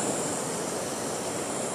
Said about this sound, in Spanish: voy a dejarte aquí contigo unos minutos más frente a la cascada. del río azul en el bolsón, con este río tan hermoso y natural que nos regala la Pacha.